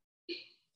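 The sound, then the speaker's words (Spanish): One sudden, sharp sneeze, a forceful burst that trails off quickly into a breathy hiss, with no one talking. “remontó la liga. Salud.”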